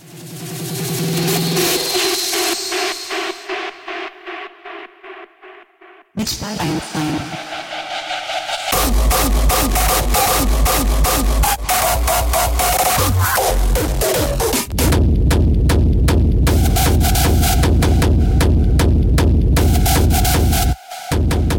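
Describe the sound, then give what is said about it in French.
Loud hard techno plays continuously, with rapid pounding kick drums, dense distorted synths and heavy bass that thickens after a brief sparser opening. Nobody speaks over the music. “Ouais, ouais, beaucoup, d'artistes qui ont jeté à track, mais du coup, on va aller, on va quand même se l'écouter.”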